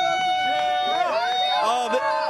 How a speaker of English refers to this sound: Push ups now for Jarom Jordan. The crowd chanting his name.